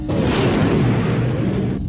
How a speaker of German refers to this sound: Der Frachter ist explodiert. Notfall. Schiffsexplosion am Orbit-Dock V475. Wir brauchen ein Rettungsteam.